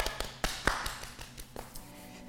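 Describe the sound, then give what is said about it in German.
Hands pat and tap thoroughly down the legs in a quick, uneven series of soft thumps, strongest early on, then tapering into lighter taps. “Uh, ich klopfe jetzt die Beine richtig gut ab.”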